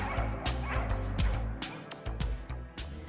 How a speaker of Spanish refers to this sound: Después lanzó el paquete de pólvora hacia la lumbre. Los clamores perrunos se escucharon casi al mismo tiempo que la pequeña explosión.